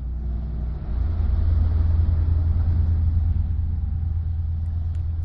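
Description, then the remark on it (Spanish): A car engine rumbles steadily, a low idling drone that swells slightly after the first second and then holds even, with no voices over it: a car pulling up at a private home in Madrid in the early hours of the morning. “A altas horas de la madrugada se paran coches en domicilios particulares, sacan a los detenidos y los llevan de paseo.”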